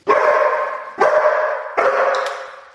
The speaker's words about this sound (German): Dabei ähm, lege ich den Hund erst ab und er bekommt ein Hörzeichen und verbellt mich erst. Ähm, das ist ganz spielerisch aufgebaut. Und wenn er mich verbellt, klicker ich ihn und er bekommt sein Spielzeug.